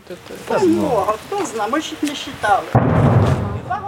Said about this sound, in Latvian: Lai arī šeit ik pa laikam dzirdami skaļi šāvienu trokšņi, cilvēki mierīgi sēž pie mājas, un turpat pie ēkas iekurtā nelielā ugunskurā gatavo ēdienu.